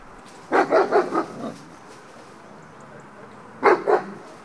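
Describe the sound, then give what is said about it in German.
A muzzled German shepherd tied to a tree behind a castle fence barks in two bursts: a quick run of four or five deep barks, a pause of a couple of seconds, then two more, against faint outdoor background noise. “Hinter dem Schlosszaun bellt ein Schäferhund mit Maulkorb, angebunden an einen Baum.”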